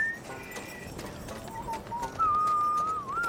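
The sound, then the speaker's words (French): A man whistles a slow, wavering tune at moderate volume, with a few sustained notes that slide in pitch and grow louder toward the end, over a faint noisy background. “Il a buté un type et il sifflote.”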